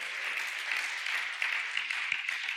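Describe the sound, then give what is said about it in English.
A crowd applauds steadily at a church gathering for a man newly recognized as a pastor by IFGF, a dense, even wash of many hands clapping at once with no voices rising above it, holding a constant level from start to finish. “You clap, he's happy, but I know what he's got to go through now.”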